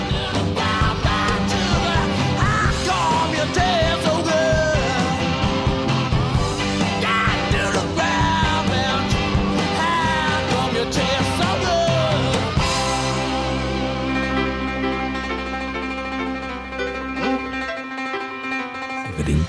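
A loud, driving rock song with dense guitars, drums and a shouted vocal, ending on a long sustained chord that rings out and fades.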